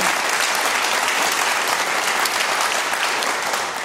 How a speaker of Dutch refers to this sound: dus ja, dames en heren, even een applaus